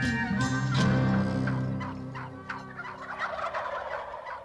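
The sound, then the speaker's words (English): A wild turkey gobbles loudly, a rapid rattling burst of throaty calls that trails off into softer clucks and chatter over a few seconds, with no one talking. “All are welcome at this roundtable conversation about one of the wariest creatures in North America, the wild turkey.”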